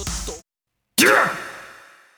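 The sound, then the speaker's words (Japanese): After a short breathy burst and a pause, a man lets out a loud, strained cry that slides down in pitch and fades, a voice imitation of the tokusatsu hero Ultraseven's battle cry. “今のはウルトラセブンですね”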